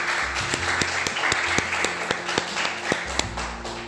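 Students in a school class laboratory break into loud, sustained applause to welcome a special guest, many hands clapping in a dense wash with sharper individual claps popping out irregularly, while a low hum runs underneath for the full few seconds.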